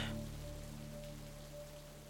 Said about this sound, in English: I wonder why they come back so quick. Maybe the rain?